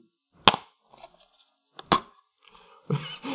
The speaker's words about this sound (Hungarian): Ilyen hangja van, amikor kinyitsz egy DVD tokot, amiben a Fear első küldetés lemeze található.